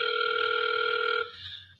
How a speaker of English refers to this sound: Oh, hang on. Oh, whoa. Turn your damn phone off. I'm getting a call. Hang on, let's see who it is.